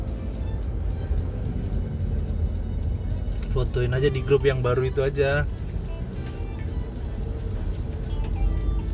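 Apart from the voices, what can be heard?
road traffic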